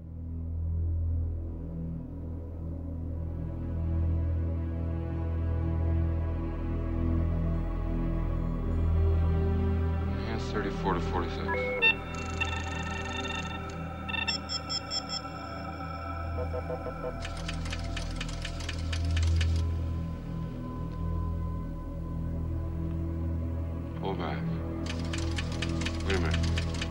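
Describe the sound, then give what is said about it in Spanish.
Electronic soundtrack music from the film Blade Runner, played as a sound test while waiting for a band: a steady, low synthesizer drone runs throughout, joined midway by high electronic beeps and tones, then bursts of rapid mechanical clicking and whirring. “a la espera de … pusieron la banda sonora de Blade Runner.”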